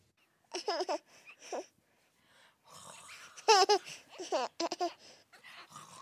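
A nine-month-old baby with six teeth babbles and giggles while lying on a small changing table in the bathroom during a diaper change, in a house outside Geilo, Norway. Short bursts of high, bouncy vocalizing, with soft breathy sounds and brief pauses between outbursts.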